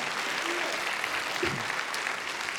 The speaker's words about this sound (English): Those who are from Cathedral of Faith, like there's several of them around here. just give a big round of applause for them. Amen.